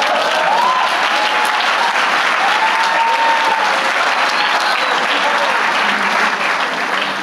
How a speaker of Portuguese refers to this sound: Aplauda Jesus.